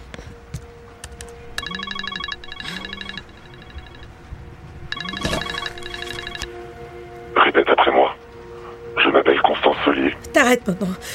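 A mobile phone rings with a bright electronic ringtone, its melodic pattern repeating in bursts, followed by rough, noisy clatters over a faint steady hum.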